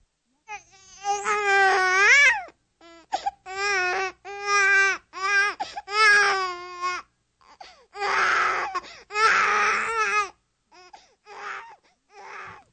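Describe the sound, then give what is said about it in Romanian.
A small child babbles in rising, wavering bursts, then breaks into loud, strained crying before trailing off into a few softer whimpering sounds. The voice is clear with no other talk. “Firește, v-ați dat seama numai decât că e un copil mic care gângurește și plânge.”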